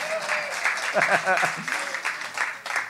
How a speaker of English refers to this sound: Where's all that clapping we were just doing?